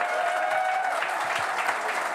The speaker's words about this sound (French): On commence à 19h pour cette émission, on va parler de politique pendant 3 heures avec les plus belles personnes du monde, mes chroniqueurs et chroniqueuses qui sont au grand complet ce soir. Applaudissez-les